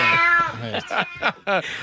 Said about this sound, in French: boy, oui, c'est le chat qu'il avait. c'est tout ce que tu as trouvé de sonore de chat, Mario.